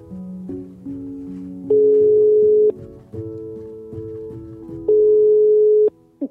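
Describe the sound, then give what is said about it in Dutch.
A phone line ringing while a call is placed to a woman: two long, steady electronic ring tones about a second each, separated by a pause, after a run of shorter stepped beeps. No talking. “ik ga haar eerst bellen en een keer horen of dat allemaal waar is en of ze wel met mij wil praten hè, en of ze mij nog kent.”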